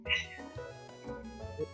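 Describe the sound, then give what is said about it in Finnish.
A shy domestic cat meows, a bright, fairly loud cry near the start followed by softer, shorter mewing sounds over the next second or so. “Ja nykyisin kun vuosia on kulunut, niin tämä arkakissa tulee tällä hetkellä niin kuin aina ovelle vastaan ja jos johonkin istahdan, niin tunkee syliin ja on rohkein koko tästä mun neljän kissan kissalaumasta.”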